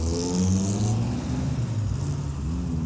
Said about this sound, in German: Der Stachus heillos überlastet vom hupenden Gedränge aus Autos, Motorrädern, Fußgängern und Trampanen.